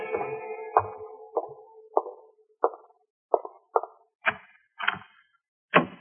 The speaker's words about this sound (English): Then I heard approaching footsteps.